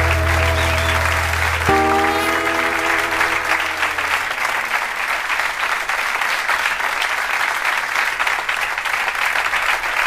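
A large crowd applauds steadily and loudly throughout, a dense, continuous clapping; the last sustained notes of music ring out beneath it and fade away during the first few seconds.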